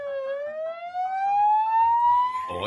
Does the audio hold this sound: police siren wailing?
yes